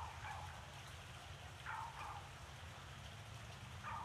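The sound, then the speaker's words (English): A dog that has been barking incessantly for hours since early morning barks faintly, a handful of short barks spaced a second or two apart, over a steady low rumble and a wash of background noise. “It has been barking incessantly like this for hours and hours.”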